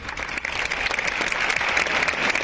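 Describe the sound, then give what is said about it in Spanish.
A crowd applauds steadily in front of Valencia City Hall, Spain, at midday, breaking five minutes of silence; many hands clap in a dense, crackling wash of sound that stays fairly loud and even throughout, with no voices standing out. “De hecho, este mediodía se guardaban cinco minutos de atronador silencio que rompían aplausos.”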